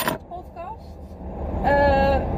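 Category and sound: vehicle, car interior noise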